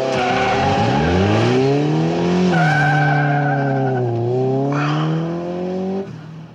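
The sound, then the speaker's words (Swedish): A Lotus Esprit sports car, driven by Bond in a Bond film scene, roars off at full throttle from a parking lot in first gear, its engine climbing through the revs while the tires squeal, loud for several seconds before fading slightly at the end. “Men Bond kliver in i bilen tillsammans med sin ryska kvinnliga agentkollega Anja, lägger i ettan och drar fullt från parkeringen till Qs stora förfäran.”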